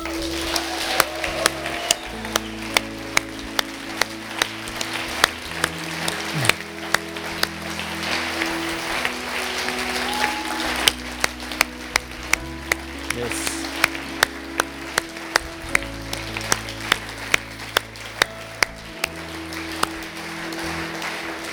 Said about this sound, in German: Ich möchte euch heute Morgen ehren. Ich möchte euch heute Morgen, hey, vielleicht können wir euch einfach mal einen Applaus geben.